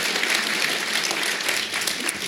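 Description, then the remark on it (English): An audience at a book talk claps steadily, a dense, even wash of many hands with no pauses, holding a consistent moderate level throughout the short stretch. “Such a nice audience. Just clapping.”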